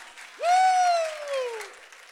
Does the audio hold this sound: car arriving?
no